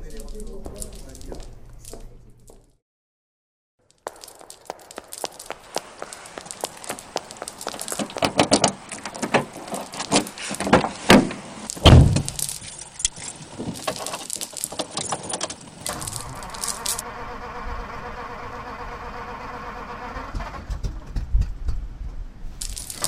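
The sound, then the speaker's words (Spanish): Keys jangle and clatter in quick irregular bursts, then a car engine strains and whirs steadily without catching, loud and continuous for several seconds. “Auto de mierda, la santísima que me parió.”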